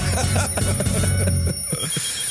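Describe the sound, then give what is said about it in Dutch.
An alarm clock rings at the start of the day in a loud, continuous metallic jangle of rapid repeated strikes that lasts about a second and a half before cutting off, followed by a couple of softer knocks. “ballen dat de wekker gaat.”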